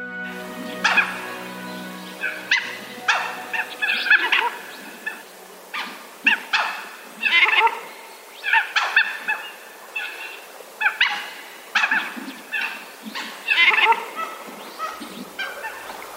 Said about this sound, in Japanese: おしどりですキャンキャンという子犬のような声をはじめ今聞こえているのはすべておしどりたちが出している音です